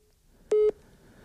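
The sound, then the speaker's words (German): A single short telephone tone: one steady, mid-pitched electronic beep lasting about a fifth of a second, heard alone over a faint background hiss with no talking, as a phone call is placed to someone in Dortmund. “In Dortmund rufen wir bestimmt den Ari an.”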